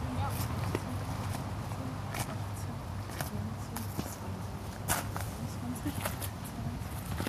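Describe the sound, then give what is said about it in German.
Steady footsteps crunch along outdoors at an even walking pace as someone paces out the length of a blackberry hedge, counting roughly one-metre steps, each step a short tap over a constant low rumble, with faint voices in the background. “Ich weiß nicht, du kannst ja mal von da nach da gehen und mal die Schritte zählen.”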